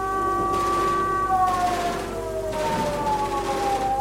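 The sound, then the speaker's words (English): A warning siren wails continuously, holding a steady high tone that slowly dips and rises in pitch, with a pulsing rush of noise beneath it. No one speaks. “Tell me that's a tornado warning. There's been a breach.”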